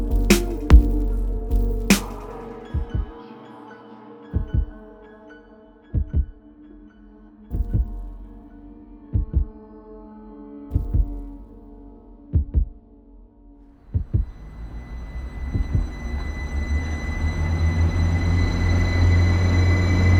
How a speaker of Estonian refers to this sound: see rong läheb kohe varsti